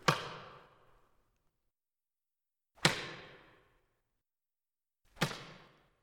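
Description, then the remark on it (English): Three sharp whip lashes strike one after another, a few seconds apart, each a loud crack that trails off quickly into silence. No voices are heard. “But can you imagine someone taking multiple strands of material, all put together in one big whip? And all of a sudden you see and you hear.”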